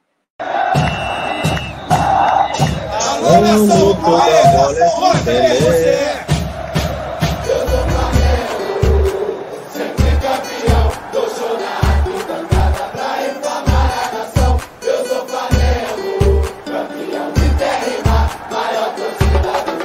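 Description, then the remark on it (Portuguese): A loud, upbeat intro jingle for the Live Zona show plays throughout, with a steady thumping beat and bright layered music, mixed with crowd cheering and shouted whoops, especially in the opening seconds. “nossa vinheta passou com sucesso, mas deu para aproveitar,”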